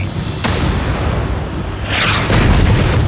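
A Sherman tank's gun fires a round with a sharp crack, then a German Panther tank explodes in a heavy burst that swells into a deep, rumbling roar continuing to the end. Low engine-like rumble runs underneath throughout, with no voices.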